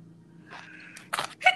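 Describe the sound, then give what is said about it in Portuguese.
A sneeze: a short, breathy intake of air builds up, then breaks into a sharp, hissy burst followed by a second quick explosive puff, with no one talking. “Saúde!”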